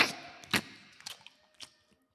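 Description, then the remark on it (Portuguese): Exaggerated, open-mouthed gum chewing: a handful of wet smacks and squelchy clicks at an uneven pace, fairly quiet, with no talking. “você deve odiar barulho de boca”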